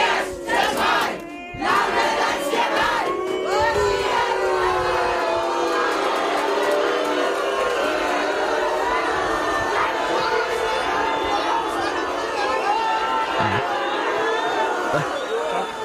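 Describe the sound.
A large, angry crowd on Langeland shouts and jeers continuously at an arriving government minister, many voices overlapping in loud protest chants and yells that stay intense throughout, with sharp whistles cutting through near the end.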